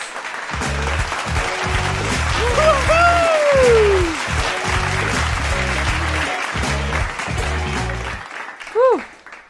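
Sustained applause from an audience, a dense wash of clapping that carries steadily throughout, overlaid with a sweeping jingle-like melodic tone that glides downward, ending with a short bright chime.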